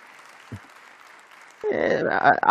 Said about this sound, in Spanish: Los primeros aplausos.